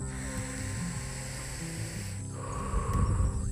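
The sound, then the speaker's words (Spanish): A slow, deep breath drawn in through the nose, then a fuller, breathy exhale through the mouth, airy, during a guided exercise of three deep breaths, with soft sustained music humming underneath and no talking. “Inhala por la nariz y bota por la boca.”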